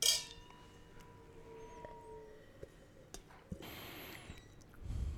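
Wine glasses clink together once at the start, bright, leaving a faint ringing tone that fades under soft handling noises and a low rumble near the end.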